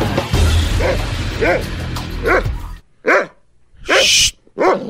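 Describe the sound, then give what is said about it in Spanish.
A dog barks repeatedly, about six sharp, evenly spaced barks, the first few over a dense, noisy background that drops away, leaving the later barks standing out more clearly. “Quédate, perro.”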